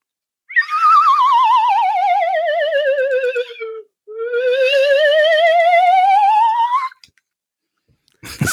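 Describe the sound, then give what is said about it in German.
A slide whistle (lotus flute) glides down in a long wavering tone, then sweeps back up with a warbling vibrato, loud, with no voices; a brief noisy burst follows at the end. “Ich möchte zum Schluss noch die Lotusflöte für dich spielen.”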